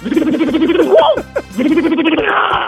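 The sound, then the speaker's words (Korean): A person mimics with their voice an impact wrench removing a car wheel at a car repair shop, in a voice-imitation contest on Park Myung-soo's Radio Show: a buzzing, rattling whir that rises in pitch, breaks off briefly, then resumes as a steady mechanical drone, loud. “카센터에 가면은 예. 자동차 바퀴 뺄 때.”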